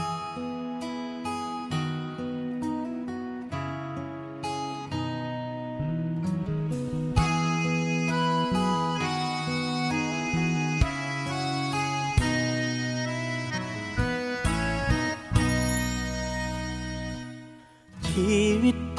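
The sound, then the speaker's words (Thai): An instrumental song intro plays loud and full during the Thai program Phuean Rak Chao Ruea, with sustained chords and a steady melodic line, briefly thinning out near the end before the band swells back in. No one speaks. “ในช่วงนี้เราไปฟังเพลงเพราะๆกันก่อนนะครับ แล้วกลับมาพบกันในช่วงต่อไปกับเพื่อนรักชาวเรือครับ”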